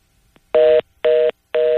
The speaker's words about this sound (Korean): 아, 지금, 예. 전화 상태가 좀 약간 불안정했었는데요. 결국은 끊어져 버렸습니다.